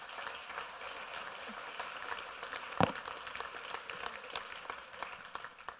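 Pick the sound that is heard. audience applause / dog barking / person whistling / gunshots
audience applause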